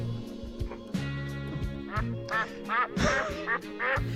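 turkey gobbling

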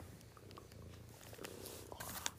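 cat purring

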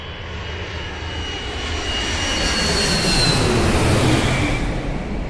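airplane flying overhead

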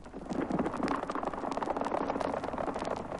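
horse hooves clip-clopping

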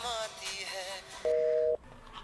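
phone call tone

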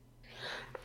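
sneeze

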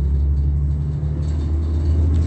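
city bus driving

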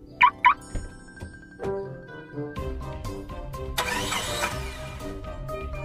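car engine starting

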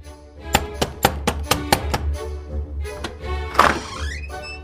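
knocking on a door

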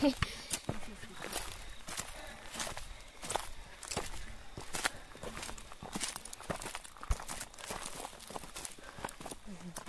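footsteps

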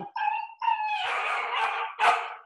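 dog barking and howling

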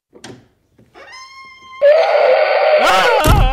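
dinosaur roar sound effect

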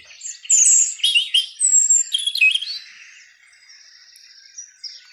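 birds chirping and singing

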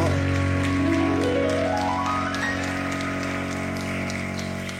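audience applause

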